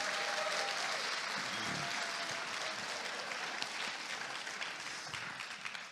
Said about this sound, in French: s'il vous plaît, une petite main d'applaudissement pour notre frère